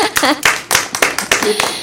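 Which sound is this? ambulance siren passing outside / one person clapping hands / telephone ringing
one person clapping hands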